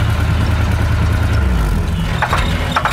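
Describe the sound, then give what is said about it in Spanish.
A car engine runs steadily with a loud low rumble that shifts in pitch partway through, joined by brief higher whines or rattles near the end, on a hot, sunny day. “Papá, ¿qué tiene el carro?”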